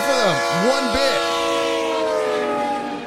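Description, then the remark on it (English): A loud, sustained train horn blares as one steady chord for about three seconds, with a few quick rising-and-falling tones near the start before it tapers off slightly at the end, played as a Twitch stream hype train alert. “The hype train has started.”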